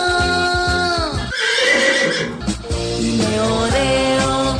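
horse neighing

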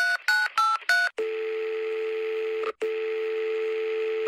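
telephone number being dialed

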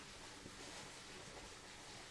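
flowing mountain stream

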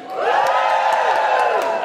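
audience cheering

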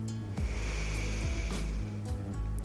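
deep inhalation

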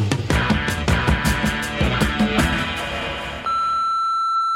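answering machine beep

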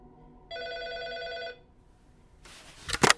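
hotel room telephone ringing

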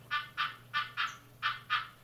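frog croaking

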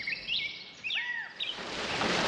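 birds chirping

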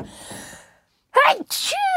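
a sneeze

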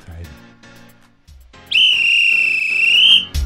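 whistle blown

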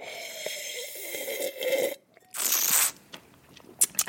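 slurping wine

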